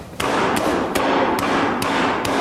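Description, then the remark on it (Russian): A hammer strikes a mobile phone six times in a steady rhythm, each sharp, loud blow landing over a constant dense background noise. “После удара молотком.”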